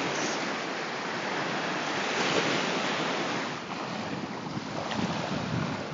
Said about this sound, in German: Und im Hintergrund hört ihr das Rauschen des Indischen Ozeans.